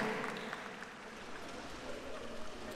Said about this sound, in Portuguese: Isto é bem fixe, porque quando vocês batem palmas e depois mudam para bocas, fazem uma transição, tipo um fade-out.